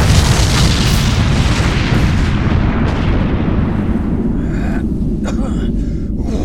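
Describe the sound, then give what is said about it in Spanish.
A loud, sustained roaring blast of a missile launching, dense low rumble filling the space, gradually thinning at the top end while the heavy roar continues steadily throughout. “Surgiendo de la explosión, el misil elevóse con nuestro héroe colgado rumbo a la estratosfera.”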